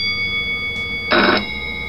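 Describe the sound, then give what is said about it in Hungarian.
A single short, loud burst of a telephone bell from a sound-effect device used for radio plays, lasting only a moment, over a faint steady high-pitched hum. “Az telefon.”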